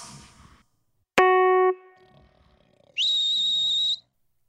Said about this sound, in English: Hear that? I found a whistle. Thought it was broken, but it's one of those high pitched ones for dogs, and it works.